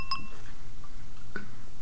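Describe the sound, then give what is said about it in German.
Two bright glass clinks ring out in a toast, one right at the start and a second about a second later, each with a short shimmering tail, fairly clear over a quiet background. “Ja, darauf erhebe ich mein Glas. Prost”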